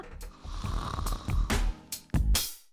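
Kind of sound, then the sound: human body sound, snoring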